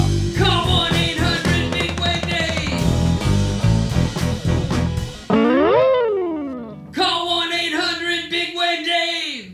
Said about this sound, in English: That was a jingle for a local law firm performed by a band